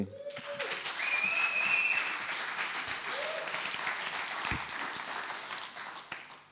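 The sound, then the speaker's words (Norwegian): Sustained applause from an audience for the worship songs, a dense steady patter of many hands clapping that holds for several seconds before tapering off, with a few faint whistles above it. “Vi gir de her lovsangene en applaus”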